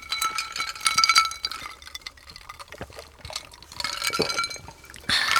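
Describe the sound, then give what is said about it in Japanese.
Drinking glasses clink together a few times in a toast with rice shochu from Takahashi Shuzo of Kumamoto, bright ringing taps mixed with the splash and slosh of the shochu being poured and swirled. “では、もう今週も私の地元、熊本の高橋酒造の米焼酎、白竹城で乾杯しましょう。乾杯。乾杯”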